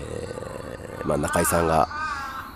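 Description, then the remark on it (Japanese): A few harsh crow caws ring out in quick succession, loud, overlapping a man who keeps speaking calmly in the foreground. “ちょっと、まあ、すいません、カラスがうるさいですけども”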